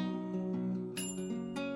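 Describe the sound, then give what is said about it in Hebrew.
A bright bell rings out twice within a song over a sustained musical backdrop, the strikes clear, each leaving a shimmering ring as the low harmonic tones continue underneath. “וואו, הפעמון פשוט עושה את הכל, ואני חושבת שאתה צריך להוציא את זה כסינגל נוסף.”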